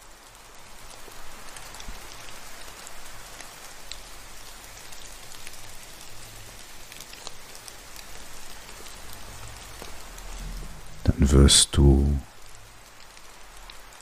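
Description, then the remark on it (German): Steady rain hisses throughout with a soft, even patter and a low gusty rumble of wind beneath it; a voice briefly speaks over the rain near the end. “Etwas später wird auch der Regen und der Wind sich wieder beruhigen.”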